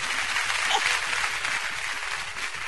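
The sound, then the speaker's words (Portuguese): A crowd applauding steadily, a dense wash of clapping that holds at an even, fairly loud level for the whole stretch with no voices standing out. “Aplausos!”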